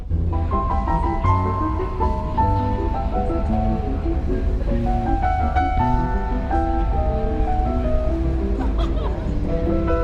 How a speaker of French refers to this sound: Ah, en plus, on a les, on a les mouettes. en effet.